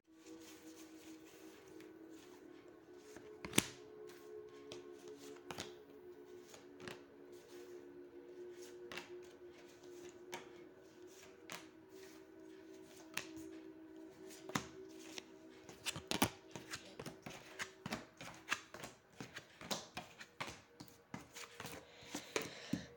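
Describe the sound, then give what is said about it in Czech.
Tarot cards being shuffled for a tarot reading about a partner relationship, a steady run of soft papery flicks and sharp riffling snaps that grows busier and denser toward the end, with no talking. “A já už se dívám na vaše fotky, míchám u toho karty a podíváme se teda spolu, co nám tady řekne o tomto partnerském vztahu.”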